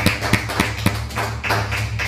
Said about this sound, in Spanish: Un fuerte aplauso a España.